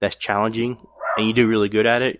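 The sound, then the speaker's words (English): A dog barks in the background while a person talks steadily over it, the barks coming as short, sharp yaps partly buried under the voice. “I apologize for the dog barking in the background.”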